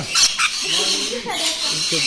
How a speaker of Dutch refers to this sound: ze noemen hem ook wel eens de regenbooglorry. En dat komt door al de kleuren die hij heeft. Het zijn papegaaienvogeltjes.